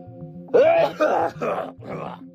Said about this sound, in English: he coughed hard, spit to the side.